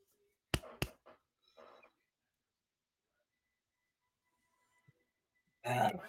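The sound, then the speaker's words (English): After a few sharp clicks and soft rustles, a long stretch of near silence ends in a loud, deep burp lasting about half a second. “And had a burp, but it won't come out.”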